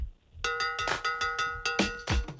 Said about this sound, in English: Let, let me hear Russ's uh, new sounder there, Longoria. Hey, ladies! Get funky.